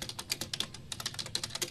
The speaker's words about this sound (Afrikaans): Mag ek jou herinner wie se skootrekenaar dit is waarop jy so lustig tik? Ek maak geld op die ding,